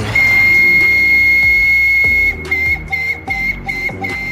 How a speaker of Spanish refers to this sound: Luego, por las noches, aparecía el manicero con un silbido fuerte